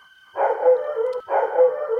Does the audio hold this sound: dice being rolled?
no